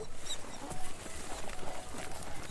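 A small flock of sheep grazes greedily on dense, pale grass at the wayside, a dense, continuous patter of tearing and munching with scattered hoof steps, fairly quiet with no talking.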